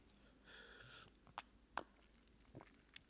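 A soft, slurping sip of very weak wine, about 0.1% alcohol, from a glass through pursed lips, followed by a few sharp little mouth clicks and a faint gulp, quiet with no talking.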